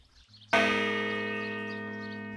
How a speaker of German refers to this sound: Ihre Türklingel hängt nämlich nicht im Haus, sondern im Vorgarten an einem Stahlgerüst. Und sie wiegt über fünf Tonnen. Es ist eine Glocke, die lange in Salzkotten bei Paderborn in der Johanneskirche erklang, bis 2017 das Geläut erneuert wurde.